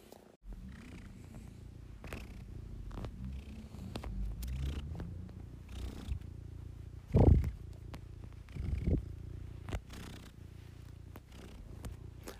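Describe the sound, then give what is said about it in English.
A cat named Sando plods and purrs steadily, a low rumbling drone with rhythmic breathy pulses, broken by a couple of louder snuffly bursts near the end. “Sando plodding and purring.”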